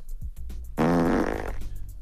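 A loud, buzzy fart sound effect blares for under a second, a sputtering rasp with a wobbling pitch that trails off, set against quiet low background noise.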